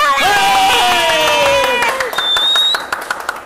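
A crowd bursts into applause and cheering at the presentation of the Gran Farol Soberano award, with loud whoops and shouts up front and a dense patter of clapping continuing underneath, a sharp whistle cutting through near the end.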